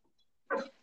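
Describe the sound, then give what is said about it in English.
A single short, excited dog whine or yelp bursts out near the end, fairly loud, with quiet background before it and no one talking; the dog is excited at hearing a familiar voice. “That, the, those noises you guys hear are not me. That's the dog who's oh, excited yeah.”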